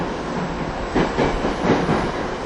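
An electric commuter train, a TWR 70-000 series on a Saikyo Line rapid service between Shin-Kiba and Akabane, rolls along the rails with a steady low rumble, rhythmic clickety-clack wheel beats pulsing through it every fraction of a second. No voices are heard.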